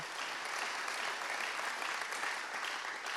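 Steady, dense applause from a large crowd for two pastors, a continuous wash of clapping at even loudness throughout, with no voices standing out.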